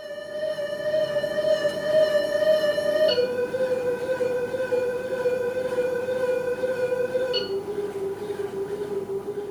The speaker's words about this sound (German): Und wenn sich die Schallquelle vom Beobachter wieder entfernt, dann schlägt der Ton um zu einer kleineren Frequenz, was einem tieferen Ton entspricht.